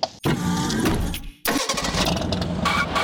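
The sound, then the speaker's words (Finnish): A car engine turns over and starts up, settling into a steady rumble, cutting out briefly partway and then roaring back to a running hum. No voices. “Pistähän kuule Aita vyökiin. koneet hyrräämään.”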